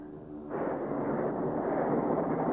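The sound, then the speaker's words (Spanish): Storm thunder: a low rumble that suddenly swells into a loud, sustained, rolling roar, heavy in the bass and continuing without a break. No one speaks. “¿La tormenta? ¿Te molesta?”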